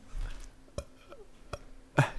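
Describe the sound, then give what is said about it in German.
A short, loud burp right into the microphone, preceded by a couple of faint clicks and quiet breathy noises amid otherwise hushed surroundings. “Kannst du dich einfach nochmal ins Mikro rülpsen?”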